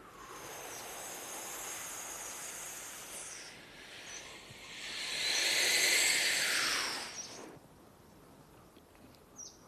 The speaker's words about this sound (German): Jetzt machen wir erst einmal der letzte Atem vor einer apnoe Das Wichtige ist, dass wir zuerst in den Bauch atmen und dann in die Brust.